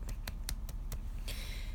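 About six sharp hand claps at a steady, unhurried pace over a low background hum, the last one followed by a lingering hiss.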